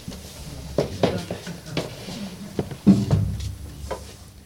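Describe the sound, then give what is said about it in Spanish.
Microphones being set up and handled, with a string of irregular bumps, knocks and clunks over a low background rumble, and no one talking. “Están colocando los micros para que se escuche todo bien.”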